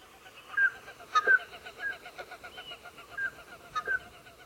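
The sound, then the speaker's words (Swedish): Common scoter flight calls: short, soft piping whistles repeated irregularly, as if from several passing birds, with a few sharp clicks and no voices. “Vi lägger väl in sjöorrens sträckläte här nu så att folk kan ställa sig på sina balkonger med ett glas rosé och plocka och in...”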